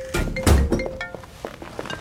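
A door is pulled shut by someone leaving, with one heavy, dull thud, followed by a few soft clicks and rattles as it settles, over a faint steady hum.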